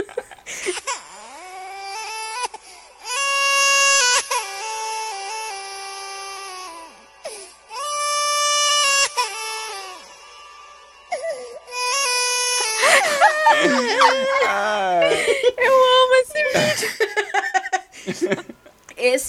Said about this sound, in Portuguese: Aquele vídeo do choro do filho da Grimes, que é com autotune.